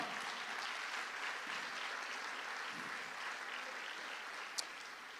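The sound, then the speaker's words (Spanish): A church audience applauds the Lord steadily, a dense, sustained wash of clapping from many hands that holds at an even level for several seconds, with one sharp louder clap near the end. “Déselo fuerte al Señor, hermano.”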